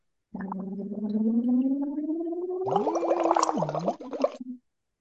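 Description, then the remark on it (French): As the last exercise of a short demonstration, a voice imitates a fire-brigade siren through a straw: a steady rising wail, then loud bubbling and gurgling as the pitch holds, dips and trails off. “Et euh, dernier petit exercice juste pour cette petite démo, de euh, juste faire une sirène dans la paille.”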